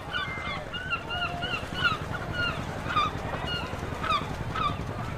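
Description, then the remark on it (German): Aggressive gulls call repeatedly over a low, steady background rumble, their harsh cries overlapping in irregular bursts as they occasionally swoop down on a pile of spilled cinnamon powder on a street, with no voices present. “Die aggressiven Möwen stürzten sich gelegentlich auf diesen Haufen Pulver.”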